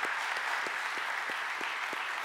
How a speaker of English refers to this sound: We can give a round of applause